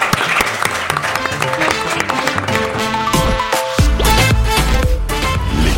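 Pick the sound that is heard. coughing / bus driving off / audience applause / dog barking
audience applause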